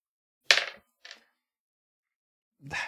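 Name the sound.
dice roll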